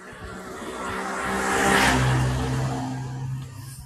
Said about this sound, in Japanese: あら、バイクだ。